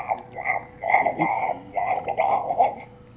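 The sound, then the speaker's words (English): A person makes a bubbly, croaking gurgle by vocalizing into a glass of water, a few rhythmic warbling bursts over about three seconds, fairly loud with no words spoken. “noise, but I, but I did it into my glass of water.”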